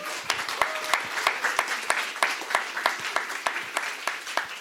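A crowd applauds steadily for several seconds to welcome a journalist, essayist and magazine section head, dense overlapping claps forming a bright, crackling wash of sound with sharper individual claps popping out, at a moderate, even level with no one speaking.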